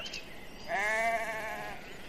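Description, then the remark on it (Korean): A single wavering lamb bleat rises suddenly and holds for over a second, fairly loud, with a quavering, tremulous pitch before trailing off into quiet background. “새끼 양 울음소리가 들려왔으니 우리 형도 거기 있겠지?”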